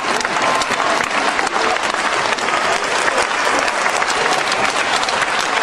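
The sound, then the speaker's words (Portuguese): A loud, sustained round of applause from a crowd, dense steady clapping with no break across the whole stretch, and no one speaking over it, for the book No Tremor do Mundo, essays and interviews in light of the pandemic. “Merece uma ruidosa salva de palmas.”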